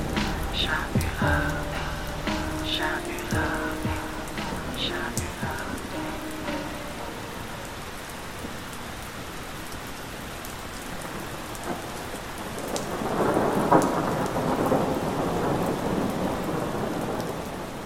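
Steady, dense rain hisses throughout, and a low rolling rumble of thunder swells up partway through. Faint tonal, music-like sounds sit under the rain at the start.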